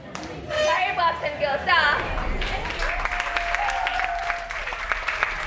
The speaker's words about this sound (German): Am Ende gibt es Applaus für die Trainerinnen, die nach Stunden der Motivationsreden schon etwas heiser sind.